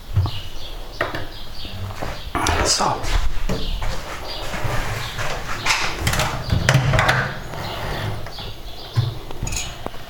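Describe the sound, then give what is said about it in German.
Birds chirp intermittently through a busy outdoor ambience, mixed with scattered knocks and clatter and indistinct voices in the background, at a steady moderate level throughout. “einfach ein bisschen die Atmosphäre, die Vögel”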